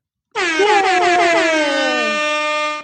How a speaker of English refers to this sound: Oh, that air horn really makes the intros so much better, doesn't it?